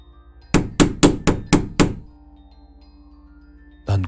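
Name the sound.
knocking on a door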